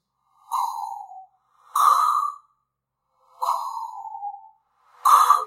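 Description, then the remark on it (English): A voice mimics heavy mechanical respirator breathing: two slow cycles of a raspy, whistling inhale followed by a harsher hissing exhale, fairly loud, with short silent gaps between breaths. “They're just sitting there breathing.”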